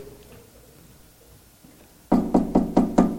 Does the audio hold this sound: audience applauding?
no